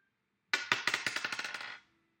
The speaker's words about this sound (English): So eight, nine, or zero is what we're looking for on this die.